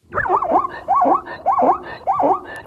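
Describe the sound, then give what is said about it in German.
An ordinary zebra calls in a rapid series of four yelping, rising-and-falling barks, loud, with a squeaky, almost dog-like quality and no talking over it. “Und, und jetzt haben wir hier noch ein, ein normales Zebra.”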